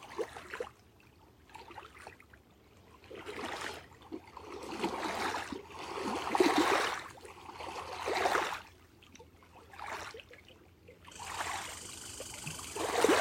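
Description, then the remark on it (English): Gentle water of Gichigami (Lake Superior) laps in soft, rhythmic swells in the quiet of the morning, each wash rising and fading every couple of seconds, calm, with no voices. “I love the quiet of the morning. Gichigami greets you.”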